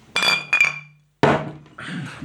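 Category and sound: household object, glasses clinking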